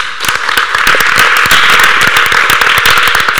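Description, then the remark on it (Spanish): A crowd applauds steadily, a dense, even patter of many hands clapping at once with sharp individual claps standing out, sustained at a fairly loud level for a few seconds with no voices. “Esto merece un aplauso, señor”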